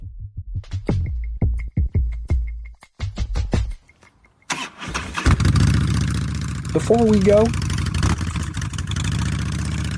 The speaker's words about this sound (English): Harley Davidson motorcycles are famously loud